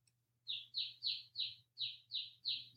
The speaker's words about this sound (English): Is that your bird or a bird outside? It's my baby chick.